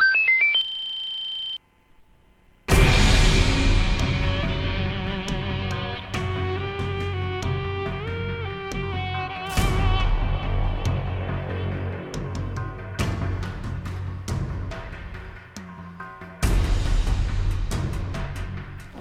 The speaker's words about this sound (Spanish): Estamos escuchando de fondo, bueno, la música de Borderlands 1.